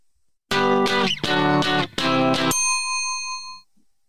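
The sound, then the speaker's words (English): A loud, two-second snippet of a pop song with punchy rhythmic chords, played as a name-that-tune quiz question, stops abruptly, followed by a bright bell-like ding that rings out and fades. No one speaks. “Here is your third two second tune?”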